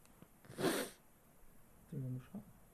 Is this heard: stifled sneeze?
yes